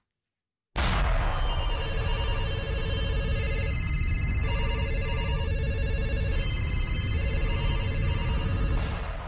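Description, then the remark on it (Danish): An old telephone, one found in an attic, rings continuously with a bright, metallic jangle, loud and steady for about eight seconds, with brief dips in the ringing pattern. No one speaks. “Ja, og fortidstelefonen, det er jo en telefon, som jeg engang fandt på loftet.”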